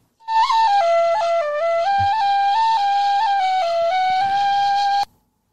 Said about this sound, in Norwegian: Vi kjører litt fløyt imellom, da.